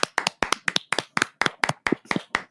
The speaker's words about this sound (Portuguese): Palmas pra minha fonoaudióloga. Pa palmas.